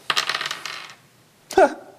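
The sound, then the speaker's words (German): Dice clatter and rattle across a hard table for about a second in a game skill roll, then after a short pause one sharp knock rings out briefly; fairly loud, with no talking. “Ja, würfel mal auf Handeln 32.”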